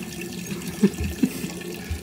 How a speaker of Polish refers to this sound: po chwili słyszycie, jak oddaje swój mocz na trzeciego wilka.